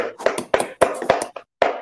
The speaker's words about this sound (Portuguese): Professor Arthur Cabral, minhas palmas para você.